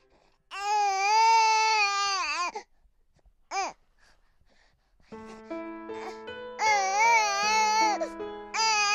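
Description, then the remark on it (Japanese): A newborn baby boy, born in Tokyo, wails in long, quavering cries, pausing briefly between bursts, loud, with a steady low hum underneath the later cries. “子供が生まれたのは、東京に出てきて3年が経った頃だ。”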